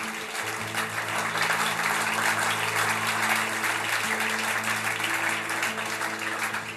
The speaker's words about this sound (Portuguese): Aplauda Ele mais uma vez vocês!